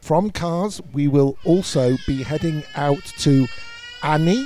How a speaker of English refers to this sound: I don't know if you can hear that baby crying, but clearly they're already suffering from the thoughts of the temperatures that we're going to be heading towards.